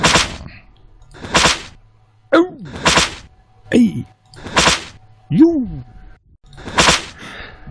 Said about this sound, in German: Ich muss doch die Peitsche schwingen.